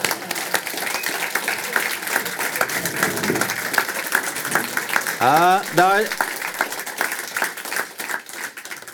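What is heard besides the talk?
audience applause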